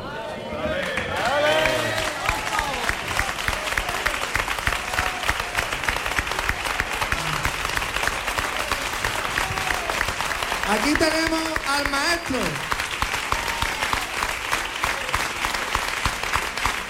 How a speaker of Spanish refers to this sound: Un gran aplauso para él, que los quiero más que, nadie en este mundo.